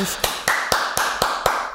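One person claps their hands six times in a quick, steady rhythm, each clap crisp and close, over a faint background hiss with no talking.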